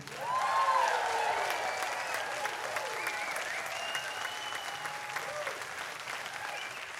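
Sustained applause from a large audience at the 2019 Savannah Music Festival after a live performance by a Cuban singer, a dense wash of clapping with a few whoops and cheers rising above it, steady throughout.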